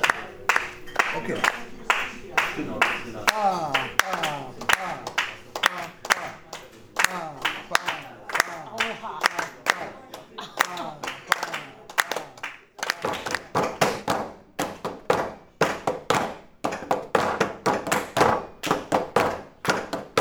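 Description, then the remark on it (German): Hands clap a steady, even straight beat of sharp, crisp claps as a clave part accompanying a group song, continuing throughout, with voices faintly audible beneath the claps during the first half. “klatschst du mal die gerade durch?”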